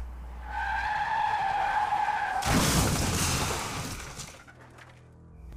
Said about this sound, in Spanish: Y entonces pensé, no suena más fuerte, sino que está más cerca. Al darme cuenta de eso, fui hacia la cerca, pero antes de que pudiera avanzar mucho, Escuché un grito breve y ahogado, y el rugir del motor terminó con un golpe repentino y ensordecedor.